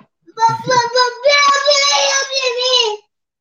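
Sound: child crying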